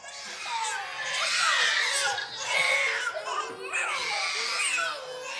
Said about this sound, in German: Gruppenstillen. Sechs schreiende Babys werden von einer Schwester auf einem Karren ins Zimmer geschoben. Jede Mutter sucht sich ihres heraus und legt es an die Brust.